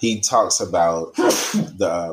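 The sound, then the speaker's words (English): A man is talking when a single sharp sneeze bursts out, loud and brief, and the talking picks up again right after it. “bless you.”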